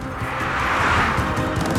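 A car driven by a detective speeds in the left lane of the A6 highway toward Emmeloord, a continuous loud rush of engine and road noise with a slight swell midway, with no voices.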